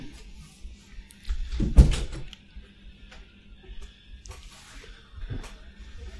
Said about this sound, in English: Vil du bare lukke døra så lenge?